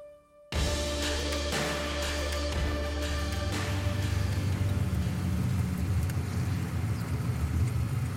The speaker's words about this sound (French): Je suis dans ma voiture bloqué dans le trafic